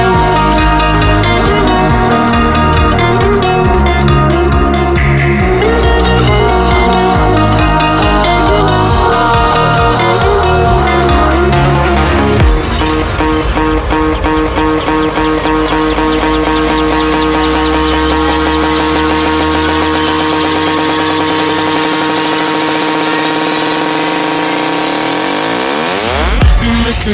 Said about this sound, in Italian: Questa però è la sua versione remix da pista, un treno, bellissimo, ascoltiamolo.